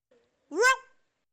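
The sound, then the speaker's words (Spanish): A single short, high-pitched yelp from a human voice, imitating a small dog's bark, fairly loud, rising then falling before quickly fading, with a faint tone just before it. “Sí, un perrito.”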